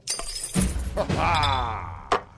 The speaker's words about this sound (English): Uh, okay, well, let's clink some mugs.